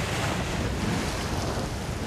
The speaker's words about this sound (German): hebt es durch die tosende Gischt höher und höher in die Luft. Eben waren sie noch von hohen Wasserwogen umgeben.